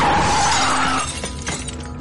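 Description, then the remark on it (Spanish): A loud car crash in Paris, Princess Diana's accident of 31 August 1997: a brief tire skid squeals into a noisy impact as the car hits a pillar at the Pont de l'Alma, followed by scattered tinkling bursts of shattering glass that fade out. No one speaks. “Ahora sí, volviendo a esa madrugada del 31 de agosto de 1997, Lady D sufrió un gravísimo accidente de tráfico en París.”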